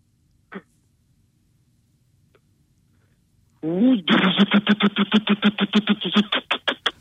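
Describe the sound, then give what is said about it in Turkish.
A voice imitates a Hilti hammer drill with a rapid, steady train of loud, buzzing pulses lasting about three seconds, after a short rising vocal onset. The sound is somewhat tinny. “Hilti sesi ….”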